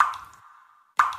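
Water drips from a leaking shower, two distinct resonant plops about a second apart, each ringing briefly before fading. Fairly clear, with no voices.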